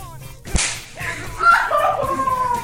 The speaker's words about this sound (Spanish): es que si escuchas, ¿no? Esa acá, mira. La nalgadita y la queja.